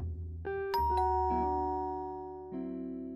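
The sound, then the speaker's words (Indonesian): An apartment doorbell chimes with several bright, ringing tones struck in quick succession, each note sustaining and overlapping before a final tone near the end; clear, with no voices. “Sekitar 40 menit setelah ku telepon mama, bel pintu apartemenku berbunyi.”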